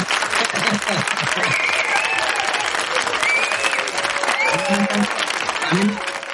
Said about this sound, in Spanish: Bueno, y también, también un aplauso para los que hacemos teletrabajo, que es una putada.